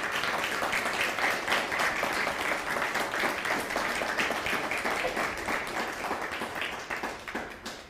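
Sustained audience applause given in praise of God, a dense wash of many hands clapping at a steady loud level for several seconds before thinning slightly toward the end.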